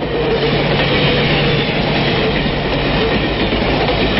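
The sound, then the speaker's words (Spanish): A steam train runs at high speed through valleys and mountains in northern Italy with a steady, loud rumble and clatter, a faint low locomotive hoot sounding underneath for the first moments. No one speaks. “El ulular de la locomotora semeja a un grito de muerte causado por la traición y el crimen.”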